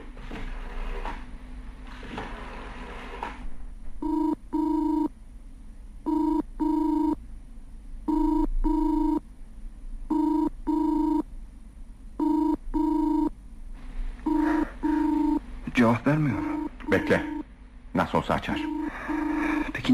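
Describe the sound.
A telephone rings in a steady pattern of paired bursts, clear, repeating about six times before being picked up with handling clatter and a brief voice.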